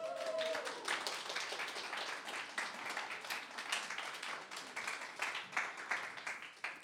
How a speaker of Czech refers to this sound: Pojďte jim zatleskat.